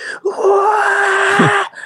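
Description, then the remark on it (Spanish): A man's voice lets out a long, strained wailing scream imitating men screaming as if in a deadly fight, sustained for over a second and dropping into a groan at the end. “pero cuando yo estaba acostado en el cuarto ahí con mi primo, empiezo a escuchar como gritos. Como gritos de, de, tipos matándose, así.”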